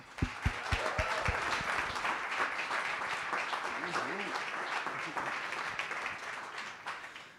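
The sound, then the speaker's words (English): An audience applauds steadily to welcome a speaker at a morning event: a dense wash of clapping that holds for several seconds, with some cheering voices mixed in before it starts to fade. “Put your hands together and give a warm coffee and closer welcome”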